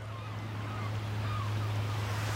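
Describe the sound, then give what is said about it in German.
Quiet seaside ambience on the Baltic Sea shore under a foggy sky, with a steady low rumble of calm water and wind, while a few faint cries drift in from gulls waiting on the mudflats. “Die Ostsee liegt still. Der Himmel ist nebelverhangen. Möwen warten im Schlick.”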